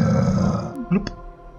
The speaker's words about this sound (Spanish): Casi tan pronto como las palabras salieron de su boca, escuchó el bramido de una bestia en las cercanías.